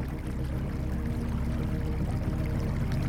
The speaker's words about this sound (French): On va écouter la rivière Ouais, on va écouter la rivière, c'est super sympa.